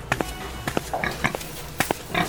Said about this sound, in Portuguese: Meu Deus, mas esse lugar parece um chiqueiro. Parece não, é um chiqueiro, tá cheio de porco aqui.